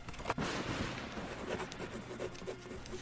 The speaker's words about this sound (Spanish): Toma hojas de un cajón de su escritorio, saca de su bolsa una pluma de punta fina y comienza a escribir.